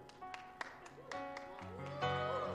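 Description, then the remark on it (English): A handful of sparse, evenly spaced claps from two people, about six sharp slaps in a steady rhythm, fairly quiet, over a sustained tonal background that swells toward the end. “Two people clapping.”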